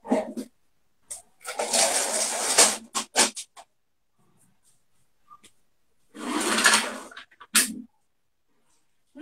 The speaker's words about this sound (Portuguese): Deixa eu, deixa eu fechar minha janela aqui, que tá muito cachorro latindo.